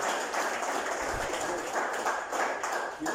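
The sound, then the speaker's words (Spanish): A church audience applauds steadily, giving applause to the Lord, a dense crackle of many hands clapping that holds at an even level for the whole stretch, with no voices over it. “Si le va a dar un aplauso, déselo al Señor, por favor.”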